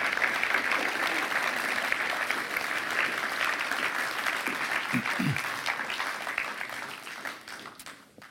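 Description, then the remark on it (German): Sustained applause from a sizable audience welcoming two guests onto a stage, a dense wash of clapping that holds steady for several seconds before gradually thinning and fading toward the end. “Auf die Bühne zu kommen und dich könnt mit einem herzlichen Applaus begrüßen.”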